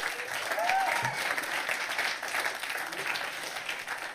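An audience breaks into warm, steady applause, a dense wash of many hands clapping that holds at an even level throughout without pausing, with a brief whistle-like tone rising early on.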